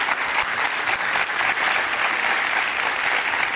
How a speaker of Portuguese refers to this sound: Estamos aplaudindo quem foi escolhido o melhor jogador do torneio.